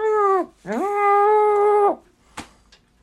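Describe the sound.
Someone imitates a muffled sheep bleat: a short falling cry, then a longer, steady nasal one, loud, followed by a couple of faint clicks.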